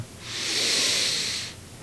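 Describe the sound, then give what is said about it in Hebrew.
A single long, deep breath drawn in through the nose during a guided breathing exercise, a steady airy rush that swells over about a second and a half before stopping, clear with no talking. “קחו נשימה עמוקה הייתי ביחד.”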